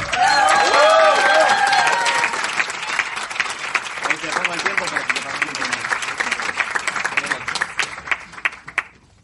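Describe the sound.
A crowd applauds loudly and steadily for several seconds, dense clapping with a few cheering voices at the start, then thinning gradually as the clapping fades out toward the end.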